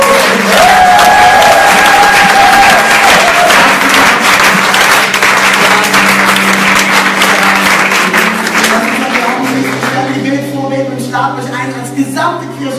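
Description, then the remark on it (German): A large audience breaks into loud, sustained applause with some cheering for 13 people, a dense wash of clapping that fills the whole stretch, with a few whistle-like tones early on and tapering slightly toward the end. “Ich will, dass ihr mir gemeinsam einen Applaus gebt für diese 13 Leute, die heute sind.”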